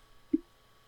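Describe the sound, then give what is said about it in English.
A single brief, soft snuffle from Frida, a dog, sniffing right up against the microphone after drinking water, a quick low puff of breath in otherwise quiet surroundings. “She just uh, sniffed it, so you probably heard that.”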